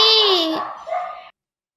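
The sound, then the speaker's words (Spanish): A dog lets out a loud, drawn-out bark followed by a shorter rough second bark, about a second and a half in all, then silence. “Uy, mi perrito.”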